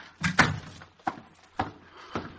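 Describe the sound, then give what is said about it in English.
A door is pushed open with a heavy wooden thud, followed by three lighter knocking bumps spaced about half a second apart, fairly quiet, with no voices. “Why, it's open.”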